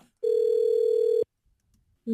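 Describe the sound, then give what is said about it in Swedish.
A telephone ringback tone heard while placing a call to Kalmar to book a hotel room: a steady, clear, one-second tone, a pause of silence, then the next tone beginning. No talking. “nu ska vi höra hur det lät när Benjamin eh, då ringde till Kalmar och ville ha ett hotellrum”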